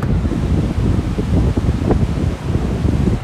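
Steady, blustery wind at a beach roars across an open microphone held by a person sitting in a car, a dense low rumble with gusty buffeting and a faint wash like surf beneath it, continuous and fairly loud throughout.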